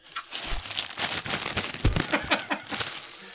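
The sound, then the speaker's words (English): Continuous crinkling of a crisp plastic Cheetos snack bag being handled and rustled during a snack break, with irregular crackly bursts over a few seconds and no talking. “We just had a Cheetos break there.”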